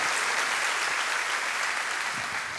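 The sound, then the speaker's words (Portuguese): A crowd applauds steadily, a dense wash of many overlapping hand claps at a constant loudness with no voices. “Quem está recebendo essa palavra, dá uma salva de palmas, por favor, para que você conecte essa palavra.”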